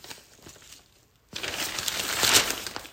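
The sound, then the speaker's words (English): Rustling of newspaper pages being turned by the speaker, a soft crinkle at first, then a louder, sustained papery crackle and swish after a brief pause, with no talking. “you can hear me actually turning the pages.”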